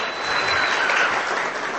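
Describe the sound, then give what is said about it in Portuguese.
A crowd claps steadily for a couple, a dense, even wash of many hands with no pauses, holding a fairly loud level throughout. No one speaks over it. “Vamos dar uma salva de palmas um pouco mais forte para esse casal.”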